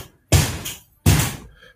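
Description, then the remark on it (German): Two heavy, resonant thuds on a door, spaced under a second apart, each striking sharply and ringing out briefly before fading. No one speaks. “Will ja da, hier auch jemand rein oder? Jemand da jemand an die Tür?”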